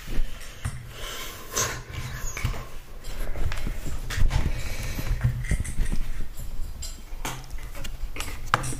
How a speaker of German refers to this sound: Jetzt zum Beispiel frisst die Katze. Ja. Frisst Trockenfutter.